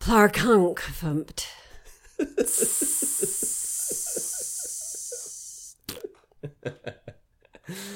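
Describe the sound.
A voice rattles off a quick burst of silly gibberish comedy noises: warbling nonsense syllables, a long hissing breathy stretch, then choppy sputtering sounds and a short wobbly squeak, all lively.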